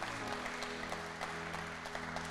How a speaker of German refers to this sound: Ich würde sagen, gebt ihr noch nochmal einen Applaus